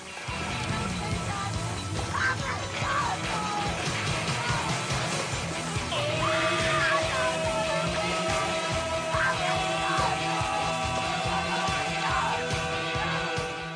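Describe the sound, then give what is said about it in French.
A dense, loud sound collage jingle where a droning, revving chainsaw motor runs throughout, punctuated by high shrill screams from a woman, all continuous. “Comme vous avez pu le noter, on a mis les petits plats dans les grands avec ce jingle cousu humain à base de bruit de tronçonneuse et de scream queen hurlante.”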